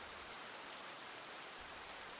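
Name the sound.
rain falling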